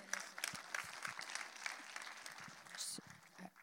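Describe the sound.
An audience claps steadily, a dense patter of many hands filling the whole stretch at a fairly moderate level, with faint murmuring voices mixed underneath.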